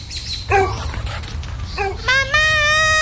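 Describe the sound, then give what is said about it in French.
A dog that has got out of the yard again gives two short barks a moment apart, followed by a drawn-out, high-pitched whine, against a low background rumble. “Le chien est encore sorti de la cour!”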